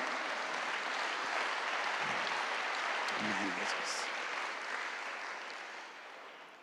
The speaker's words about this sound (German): Ja, lass uns Jesus einen Applaus geben.